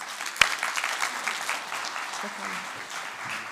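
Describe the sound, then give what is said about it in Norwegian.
An audience claps steadily for a few seconds to welcome guest Terje Skau, a dense wash of many hands with one sharp louder clap near the start and faint voices underneath. “Terje Skau Ja, gi han en klapp.”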